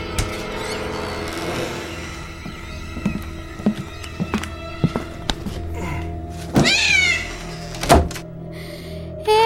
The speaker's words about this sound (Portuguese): Ei, você jogou meu gatinho contra a parede.